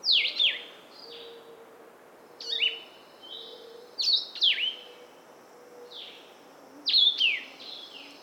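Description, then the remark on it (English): Several migrating songbirds in mixed flocks going by give short, sharp descending chirps in scattered bursts, some clear, others fainter, over a steady low background hum with no one talking. “the excitement is certainly the volume of birds, but then the mixture of, of flocks that are going by and, and um, you know it really tests one's skill in identification to pick out pick out the birds as as they're going by”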